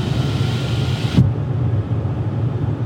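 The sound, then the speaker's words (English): A window shuts with a single soft thump, and the steady outdoor traffic hiss abruptly turns muffled and dull. A low rumble continues faintly afterward, and no one speaks. “Let me uh, close this window.”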